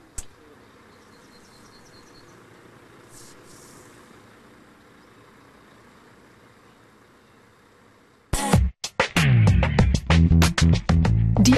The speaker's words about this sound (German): Der 25-Jährige muss jetzt nur noch die Leitungen anschließen. In gebückter Haltung zu arbeiten gehört in diesem Beruf dazu. Und dann heißt es Wassermarsch.